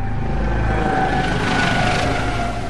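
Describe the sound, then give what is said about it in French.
A loud, steady mechanical roar of a helicopter passing overhead, part of a fixed tape soundtrack in a music piece, with a deep rumble and a whining tone that swells slightly in the middle before easing off. No voices. “Il y a un hélicoptère qui passe, il y a beaucoup de sons un peu bruts.”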